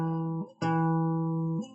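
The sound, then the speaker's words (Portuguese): A low note plucked on an acoustic guitar rings out, briefly dies away, then is plucked again and sustains steadily for about a second before fading, with no one talking. “eu vou, eu vou fazer aqui uma, uma nota ao violão, ó.”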